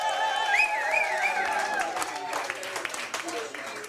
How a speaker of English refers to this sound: But anyway, our guest tonight, again, big cheer here for Rashee Rice, our rookie wide receiver.